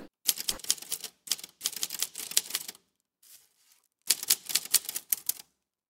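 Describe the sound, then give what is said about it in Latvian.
Rapid clacking of typewriter keys in three bursts separated by short pauses, each strike sharp, with a faint soft sound in one gap. No voices. The typewriter is one of four in a museum that belonged to Anšlis Veglītis. “Nu, lūk, un šeit savukārt ir tāda tiešām jūra rakstā mašīna.”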